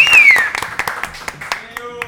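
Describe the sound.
An audience claps for a guitarist guest as he is welcomed, a dense, steady burst of applause lasting a couple of seconds, with a sharp falling whistle cutting through at the start and some faint voices mixed in.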